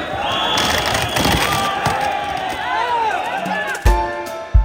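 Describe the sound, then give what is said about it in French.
A dense, chaotic crowd with many voices shouting and chanting "Révolution" over each other, loudly, at the confused opening of the agricultural fair in Paris, with a couple of sharp thuds near the end. “Il a ouvert ses portes à Paris dans une extrême confusion, comme on peut l'entendre dans cette vidéo du Parisien”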